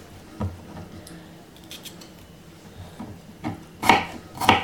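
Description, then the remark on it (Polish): A knife cuts the last two or three bell pepper strips into cubes against a board, giving a few irregular crisp chops with light scraping between. The last two cuts are the sharpest and loudest, and no one speaks. “Jeszcze pozostały jakieś dwa, trzy paski papryki do pokrojenia.”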